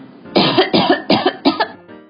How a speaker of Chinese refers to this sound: 小饼干赶紧跑到客厅，大声的咳了两声